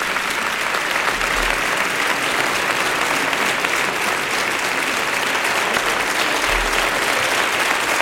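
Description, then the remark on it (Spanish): Steady audience applause at an institutional ceremony for two young girls who have read a poem by Manuel Machado about peace and Andalusia, a dense continuous patter of many hands clapping at an even, loud level with no voices standing out. “Continúan los aplausos a estas dos niñas que han leído un poema sobre la paz y este Andalucía de Manuel Machado.”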